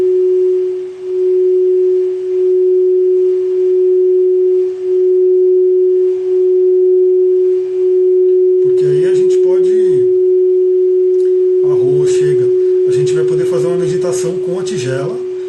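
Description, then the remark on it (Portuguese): A crystal singing bowl, sitting beside the speaker, rings with a steady, pure sustained tone that hums on throughout, slightly pulsing, while a person begins speaking over it in the second half. “Eu trouxe até o cristal, a tigela de cristal que está aqui do ladinho.”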